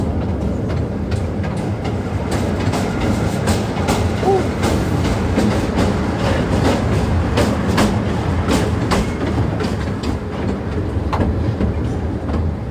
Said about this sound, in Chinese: 是一段很经典的声音，刚刚那个啊， 火车的声音。 火车进站。